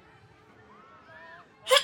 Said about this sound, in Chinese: 周遭有人打喷嚏，让人立刻警戒，如临大敌。如此没有遮掩、肆无忌惮的打喷嚏，立刻就会遭到白眼，瞬间成为全民公敌。